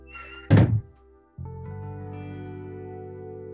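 A door opens with a single solid thunk, then a steady low hum of background noise fills the space afterward. No one speaks.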